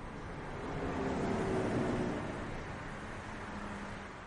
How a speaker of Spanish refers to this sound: A las afueras de Albuquerque, el coche de Mike circula por una carretera.